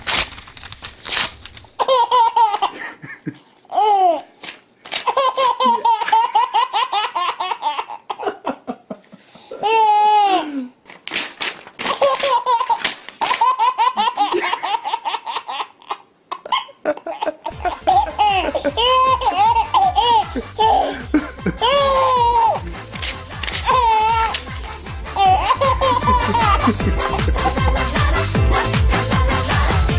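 A baby laughs hysterically in repeated, breathless bursts as its father rips paper, with sharp bursts of tearing paper between the fits of laughter and a steady low hum joining partway through.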